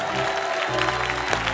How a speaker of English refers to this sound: Give the Lord a clap offering here. Somebody give the Lord a clap offering here.